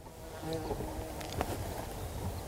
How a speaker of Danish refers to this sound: Der var lige noget. Hvad var det, der fløj forbi? Det var en humlebi.